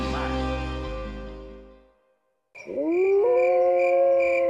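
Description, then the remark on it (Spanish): A wolf-like howl rises and holds a long, steady wavering note after a brief silence, following an earlier sustained tone that fades out. Loud, with no talking. “¿Es un documental sobre lobos?”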